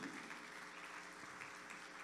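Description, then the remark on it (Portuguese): A church audience applauds the Lord for a testimony in a steady, dense wash of clapping that holds at an even level throughout, with no voices rising above it. “Você pode aplaudir ao Senhor por esse testemunho?”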